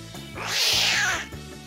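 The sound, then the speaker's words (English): A person imitates a cat's meow in one drawn-out, rising and falling vocal yowl, loud, with a steady low background hum throughout. “Meow meow meow meow meow meow meow meow meow meow meow meow.”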